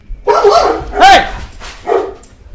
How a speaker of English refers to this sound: if you can guess the, the breeds of both of those dogs by their barks,